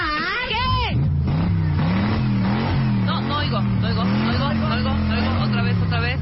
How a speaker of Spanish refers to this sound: No sé si es una moto. No sé si es un, no sé si es un avión. No a ver si es una Vespa. Exacto.